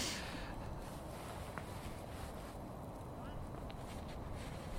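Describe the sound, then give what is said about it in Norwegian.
Strong wind blows steadily outdoors in unpleasant evening weather, a constant low rumbling roar buffeting the microphone for the whole stretch, with no pauses or distinct gusts breaking through. “for det været her er skikkelig dritt. Ja, det er liksom det, blåser, no...”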